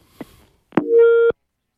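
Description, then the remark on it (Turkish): A caller's phone line to a radio call-in program drops: a faint click, then a sharp line clunk followed by a single steady telephone busy-tone beep lasting about half a second, loud, cutting off abruptly with no voices. “dedik ki e, hattımız düştü.”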